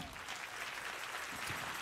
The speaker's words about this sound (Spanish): Si le va a dar a Dios ese aplauso.